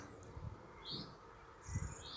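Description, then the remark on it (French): Faint birdsong in the evening by the sea, a few short high chirps and a sustained tweet against quiet outdoor ambience, with low soft cooing underneath. “bah là, ce soir, là, je suis en train d'écouter le chant des oiseaux, bah, regarder la mer au loin, bah ça c'est des petites choses que j'oublie.”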